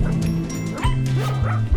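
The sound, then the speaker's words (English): Several dogs, among them Chipper, Ladybug and Huey, bark and yip in quick succession in a show's opening, loud, with a few higher whimpering yelps mixed in and no one talking. “There's so many dogs in the opening now.”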